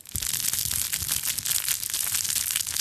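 Continuous crinkly rustling as a soft fabric crinkle baby toy is squeezed and kneaded, a dense crackling texture with no pauses and no voices.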